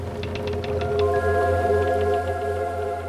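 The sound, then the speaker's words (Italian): Water laps and sloshes in a few quick splashes at a pier over a deep, steady rumble, joined by a sustained droning hum like a boat engine as a boat departs; no one speaks. “Strani rumori ci arrivano alle orecchie, lo sciabordio dell'acqua, una barca in partenza, il molo, una ciurma pronta a partire.”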